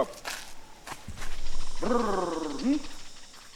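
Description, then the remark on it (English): A man makes a rolling, fluttering trill with his voice, then ends it with a short, sharp grunt, a call used by the Yao people in Mozambique to get the attention of honeyguide birds. The call is fairly loud, with a little faint noise before it. “Instead, they make this trilling sound, followed by a grunt.”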